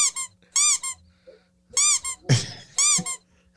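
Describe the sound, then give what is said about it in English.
A rubber squeaking sound effect: a series of high, rubbery squeaks comes in short bursts, loud, with a brief crunchy thump in the middle and quiet pauses between them. “Can you do smash, smash, smash, and that that sound effect?”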